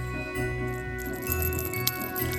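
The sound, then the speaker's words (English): A small bell on the collar of Smokey, a studio cat wearing Christmas items, jingles faintly in a few quick, scattered bursts over a steady low background hum. No one speaks. “I want to call him Jingle Balls.”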